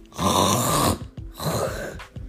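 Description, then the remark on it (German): A person imitates the snoring of a grandmother's dog with two loud, rough, rasping breaths, each lasting under a second with a short pause between, with no talking. “Und ihr könnt euch gar nicht vorstellen, wie er schnarcht. Er schnarcht des Todes, weißt du? Guck mal, soll ich mal nachmachen?”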